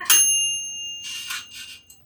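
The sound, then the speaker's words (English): An air fryer switching on to make French fries: a single bright, high ding that rings out steadily, followed by two short, breathy bursts of whooshing air. No one speaks. “There's a noise. I will do my best to filter it out, but that is the air fryer because if I'm gonna have French fries, it better be good.”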